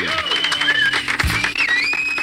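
A steady burst of audience applause for a participant's words on a talk programme, dense clapping at an even level throughout, with thin whistle-like tones gliding over it and no talking.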